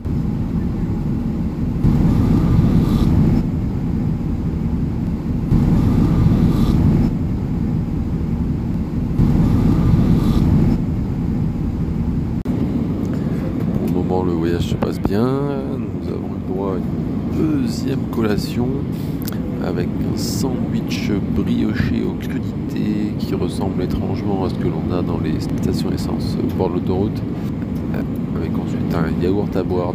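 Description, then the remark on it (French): Steady low roar of an airplane cabin in flight, with other passengers' voices murmuring and chatting, becoming more noticeable in the second half. “Si vous tendez l'oreille, vous verrez qu'il y a d'autres personnes”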